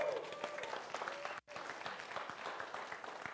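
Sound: audience applause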